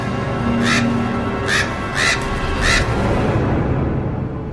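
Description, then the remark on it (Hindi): Four harsh crow caws ring out at a steady, unhurried pace over a low, rumbling background noise, clear, with no voices present; the crows are sitting on a rooftop. “और कुछ कौवे वहां छत पर बैठे आवाज कर रहे थे”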